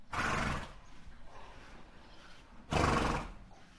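A horse neighs twice, two loud whinnies separated by a couple of seconds of quieter background with no voices; at Michael Donabauer's home in Mückenlohe, 20 kilometres west of Ingolstadt, where his 45 horses graze.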